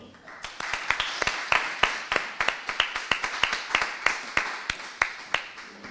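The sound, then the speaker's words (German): A small audience applauds to welcome Tillmann Birr, who is about to play two songs: a steady run of sharp, distinct hand claps over a soft wash of clapping, lasting several seconds at a moderate level without fading. “Klatsch bitte für Tillmann Birr.”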